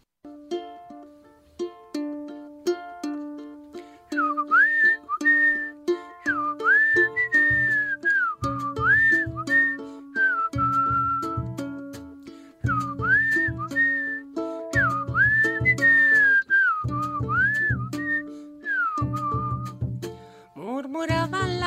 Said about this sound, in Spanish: hemos hecho un pequeño remix con, con las mejores bandas que han pasado por aquí y no es representativo porque nos faltan gente, pero, vamos con ello.